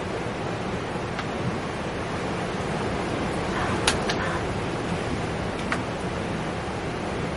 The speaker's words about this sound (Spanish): Esto que escuchéis de fondo es el, es mar, ¿eh? O sea, os dejo con el mar un poquito para que lo, lo respiréis como yo.